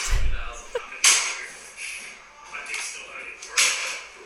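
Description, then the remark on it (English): A flogger strikes a person's back, two sharp, loud cracks a few seconds apart with a few softer strikes in between, over a faint murmur of voices. “Okay, that slapping is me being flogged.”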